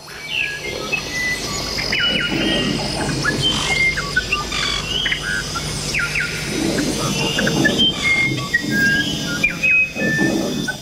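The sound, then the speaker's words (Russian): Recreated Amazon rainforest ambience in a section of a museum reproducing its ecosystem, with many birds chirping and whistling at once, bright calls scattered throughout over a steady humming background, busy and continuous with no one speaking. “Несколько шагов, и вы в настоящем тропическом лесу Амазонки”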